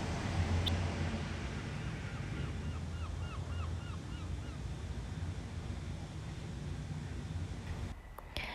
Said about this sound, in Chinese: 海浪打击在沙滩上，再退回海里面。每天每天，海浪都不会累的重复这样的动作。